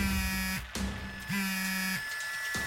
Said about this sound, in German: Dein Telefon vibriert.